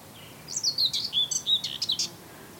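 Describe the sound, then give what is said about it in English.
A whitethroat delivers a short, scratchy burst of song lasting about two seconds, a rapid jumble of high chattering notes heard clearly against a quiet outdoor background. “So that's a white throat.”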